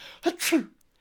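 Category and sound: vocal imitation, imitated sneeze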